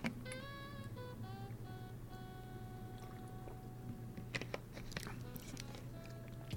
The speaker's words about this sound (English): I gotta get a sip of my Gatorade here.